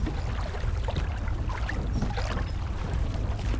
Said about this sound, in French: Les clapotis de son eau transparente, le soleil qui inonde ses rives et au loin les badauds qui barbotent élégamment.